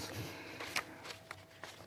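Papers rustle and shuffle in a few quick, crisp bursts, with soft handling noise in between over a quiet background, as someone consults their papers before answering a question.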